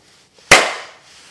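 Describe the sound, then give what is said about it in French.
One sharp, loud hand clap, made to sync a recording, breaks a near-silent background, its crisp snap trailing off in a brief ringing decay over about half a second. “Petit clap.”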